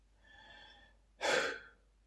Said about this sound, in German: schließt die Augen und atmet tief ein und aus.